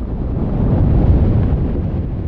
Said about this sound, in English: And that sound? Icebergs calving into the ocean.